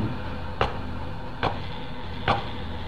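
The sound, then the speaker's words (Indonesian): Three sharp knocks like wood struck with a stone, evenly spaced, each a short hard tap standing out above a steady low background hiss. “Pertamanya aku kira ada memang ada tikus yang lagi ngegigit lemari kayu itu, tapi terdengar seperti ketukan kayu yang diketuk pakai batu. Dan bunyinya sampai tiga kali.”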